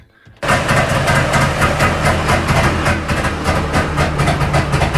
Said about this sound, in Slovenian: Stari Ford, ki ga vidimo. Stari Ford, zato ker vidite na moj ekran.